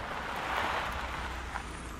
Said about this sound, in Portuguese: O inspetor Simão Rolo parou o carro à frente da esquadra da polícia, mas não desligou o motor.